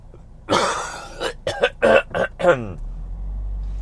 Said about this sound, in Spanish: Hoy la tos me come vivo.